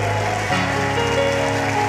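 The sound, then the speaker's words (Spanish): A crowd at a worship service applauds the Lord in a dense, steady wash of clapping that fills the whole two seconds, with sustained musical tones humming underneath and shifting pitch partway through. “Si lo cree, dale un aplauso fuerte al Señor.”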